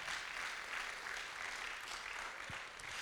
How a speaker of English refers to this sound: Come on, give him a, good round of applause.